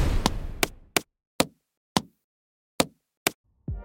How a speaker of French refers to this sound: Imaginez par exemple un moment qu'une scène de combat soit brutée uniquement avec des sons de coups réalistes. Ça donnerait à peu près quelque chose comme ça.